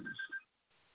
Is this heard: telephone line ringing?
yes